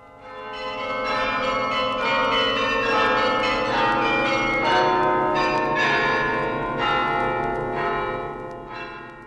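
Church bells peal continuously to welcome the new year and see off the old one, with overlapping strikes and long ringing tones, a full, loud and steady carillon-like clangor that fades slightly at the end. No voices are heard.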